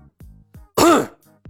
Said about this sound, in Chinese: 铁船甲本打定主意不理会李牧了，可看到李牧竟然去摸死人身上的钱，还是没忍住，他重重咳嗽了一声